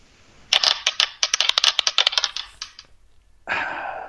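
Dice rattle and clatter in a rapid run of sharp clicks lasting about two seconds, then stop. After a short pause, a brief burst of scraping noise follows. No one speaks.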